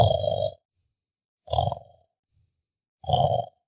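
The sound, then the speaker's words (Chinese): A person imitates with their voice the continuous snoring of a child with sleep-disordered breathing: three rough, grunting snore sounds, each about half a second, evenly spaced in a steady rhythm with silence between. “而不只是大人，其实小孩也会有打呼、睡眠呼吸中止的问题，只是小孩比较不像我们刚刚说的，哎，呼吸停很久，然后再突然一声大声的打呼，而是小朋友会有一个持续性的狗狗声，哦，就这一阵”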